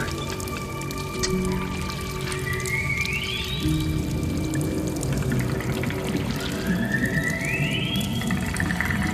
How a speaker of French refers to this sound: Le son du glas, un son de glace.